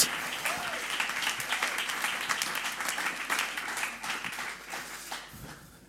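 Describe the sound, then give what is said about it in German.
A crowd applauds steadily for several seconds, many hands clapping in a dense, bright patter that stays loud throughout and fades slightly at the end, with no voices over it. “Geben wir Ihnen einen herzlichen Applaus.”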